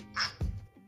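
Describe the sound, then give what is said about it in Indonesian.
A single short, harsh penguin call sounds loud, a raspy squawk that cuts off quickly, followed by a couple of dull low thumps. “Penguin.”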